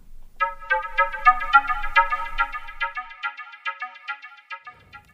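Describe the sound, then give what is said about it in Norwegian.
An outgoing phone call to a man rings out as a bright electronic melody of quick, repeating notes, steady, playing alone for about five seconds with no voices. “Da vi ringte mannen, så tok han telefonen, men ønska ikke å si noe om saken.”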